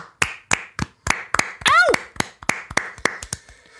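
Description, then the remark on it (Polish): A steady run of about a dozen sharp hand claps in an even rhythm, with a short rising-and-falling vocal whoop cutting in partway through. “Tak, werble na stojąco, brawa dla ciebie.”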